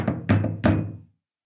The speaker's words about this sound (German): Oh, Entschuldigung, war ich zu laut? Ist das zu laut da unten in der Wohnung? Entschuldigung, hier machen wir ein paar Kopfbälle.